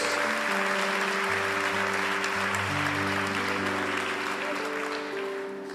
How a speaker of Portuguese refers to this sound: Aplauda o Senhor. Glória a Deus.